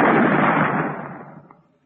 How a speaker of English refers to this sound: And you ain't gonna fire that cannon no more. We've heard enough of its roaring round here